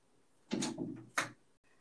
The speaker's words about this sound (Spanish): Se escucha así, de verdad, que me giran el pinche pomo, que me abren la pinche puerta